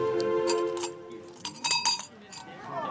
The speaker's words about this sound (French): Et on arrive sur la plateforme extérieure où il y a les inévitables petits cadenas des amoureux avec des petites cloches